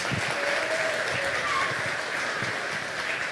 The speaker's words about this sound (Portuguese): Por favor, a salva de palmas para ela.